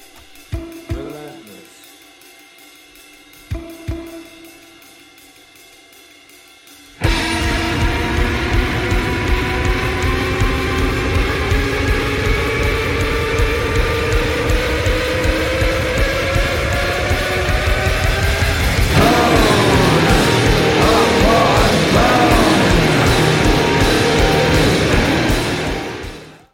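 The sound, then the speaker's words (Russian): A harsh, sinister noise music track: two sparse tonal hits with a low drone, then a sudden blast of dense, loud distorted noise with wavering tones, growing even harsher and grittier toward the end. “к апокалиптичным моментам и к тому, чтобы нормальную такую мелодичную, не знаю, гармонию превратить в какой-то голкий и очень зловещий шум.”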